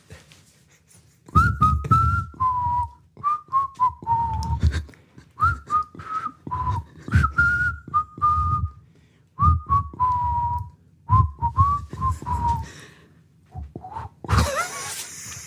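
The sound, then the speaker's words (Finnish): Someone whistles a tango tune, clear sustained notes in short phrases separated by brief pauses, with no talking, ending in a short burst of noise. “Joo, mutta taas täältä nyt tango.”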